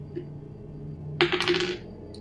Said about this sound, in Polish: rzuć sobie K6 na Fortune.